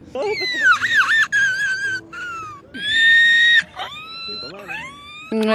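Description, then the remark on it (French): A man imitates a seagull's cry at a world championship of seagull cries held at the Dunkirk carnival, loud, in a string of shrill, wavering squawks and rising yelps with short breaks between them. “Lui n'ira pas au JO avec son cri de mouette.”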